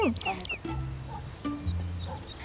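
A bird sings in quick bright chirps and whistles, busiest at the start and then scattered and fainter, over a low steady hum of background sound.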